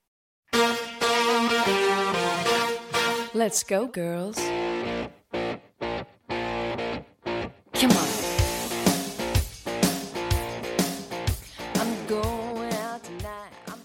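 A bright, twangy country pop guitar riff that opens a song plays loud, with brief stop-start breaks midway before the band kicks back in with punchy, rhythmic chords.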